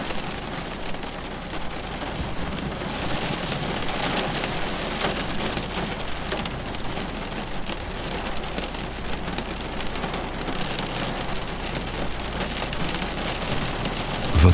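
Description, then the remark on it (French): Steady, dense rain pours down continuously during a thunderstorm, pattering on surfaces with a constant hiss, while a low rumble of thunder rolls underneath throughout. No one speaks. “Votre attention concentrée sur le bruit de l'orage vous a fait oublier le stress et les tensions accumulées.”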